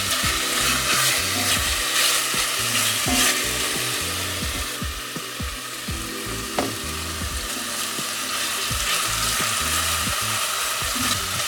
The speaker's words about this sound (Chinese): 其实可以转中大，然后让这个鸡肉呢尽快上色。但因为我怕就是蒜头跟姜啊会炒灰搭，所以我都会尽量的转中火啦。那鸡肉呢，其实是煎到稍微表面有一点点金黄色就可以了。